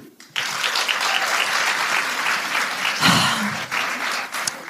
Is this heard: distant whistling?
no